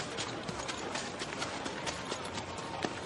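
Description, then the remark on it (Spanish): Horses' hooves clip-clop in a steady, overlapping rhythm as two men ride on horseback, the clatter spread evenly through the whole stretch with no voices. “observa desde el balcón a Silas Adams y su ayudante a lomos de sus caballos”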